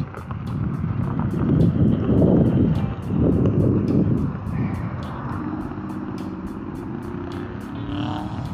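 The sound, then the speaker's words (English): Trucks rumble past, a loud swell of engine noise fading into a steady idling drone, with a faint regular ticking throughout and no one speaking. “lot of anything going on other than trucks.”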